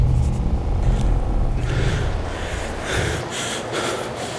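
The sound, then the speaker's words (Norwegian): A train rumbles along railway tracks, a steady low roar that thins out midway as sharper hissing, breathy bursts pulse in the upper range. Fairly loud, with no voices. “Toget til Åndalsnes, som skulle komme klokken halv fire, er dessverre innstilt.”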